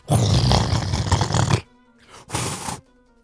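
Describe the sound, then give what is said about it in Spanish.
A voice imitates the wind noise heard on the microphone of a recording: a long, loud, rough, breathy roar, then a brief pause and a second, shorter gust of the same rumbling noise. “puntos extra por todo el ventolero que se oía en el micrófono”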